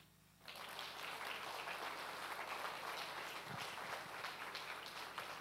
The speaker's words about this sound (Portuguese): Aplauda Jesus.